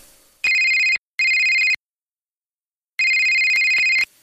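A telephone rings in bright electronic bursts: two short rings close together, a pause, then a longer third ring. Loud, with no talking.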